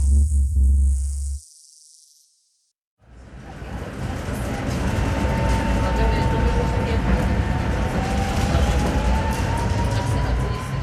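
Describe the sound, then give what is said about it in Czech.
A tram rolls steadily along its rails from Smíchovské nádraží, between Barandov and Smíchov, a continuous rumble with a faint, thin wheel squeal drawn out above it, following a short low hum and a moment of silence. “Jedu tramvají ze Smíchovského nádraží.”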